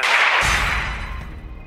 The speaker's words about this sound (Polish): Co to było? Strzał. Ktoś właśnie strzelił.